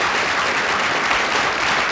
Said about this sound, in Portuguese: Coloca um aplauso fica aí, por favor.